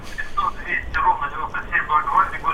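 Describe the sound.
Thin, telephone-quality speech overlaps with a delayed, hollow copy of itself, like a radio broadcast echoing back down a phone line, steady and moderately loud for a few seconds.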